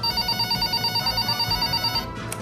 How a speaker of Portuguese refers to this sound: Peraí, tá, tá ouvindo esse barulho? Não. É o meu celular que tá tocando aqui.